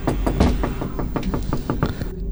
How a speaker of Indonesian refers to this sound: tiba-tiba setelah di kamar itu ada suara bunyi ketokan kayak